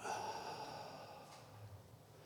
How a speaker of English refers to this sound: taking a deep breath in, breathing in the Holy Spirit, taking a deep breath out